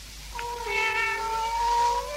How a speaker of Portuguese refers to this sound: Então são gatos.